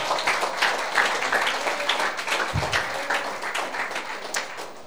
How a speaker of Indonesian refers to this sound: Tepuk tangan dulu buat mereka yang penuh dengan roh.